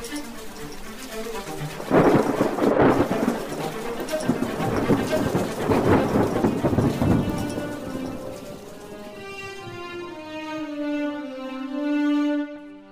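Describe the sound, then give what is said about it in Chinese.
Heavy rain pours down loudly with deep rumbles of thunder rolling through, then the storm thins out as a soft, sustained tonal sound takes over near the end. “暴风雨终于过后，第二天雨过天晴，苹果树妈妈总算还活着。”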